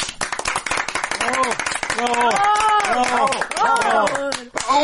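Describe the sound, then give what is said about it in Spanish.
Loud, dense applause of many hands clapping rapidly and continuously, with voices cheering and whooping over it in rising and falling calls. “Aplausos.”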